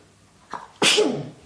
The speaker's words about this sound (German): Gesundheit, Gesundheit.